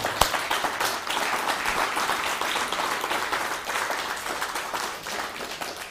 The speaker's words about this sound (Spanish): Y bueno, eso es todo lo que traía yo. Así que un fuerte aplauso al bendito sea.